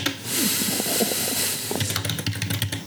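A steady hiss fills the first half, then rapid, irregular clicks of typing on a computer keyboard patter along quickly for the last second, moderately loud and with no voices.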